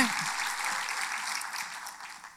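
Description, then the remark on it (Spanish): A church audience applauds the Lord together, a dense, steady patter of many hands clapping at once that stays fairly loud before easing off slightly toward the end. “Un aplauso al Señor.”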